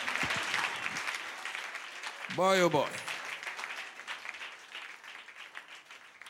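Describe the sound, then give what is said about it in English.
An audience claps hands in a dense, sustained burst of applause lasting several seconds, with a short voiced exclamation rising briefly above the crowd noise. “Clap your hands if we are doing it, do it together.”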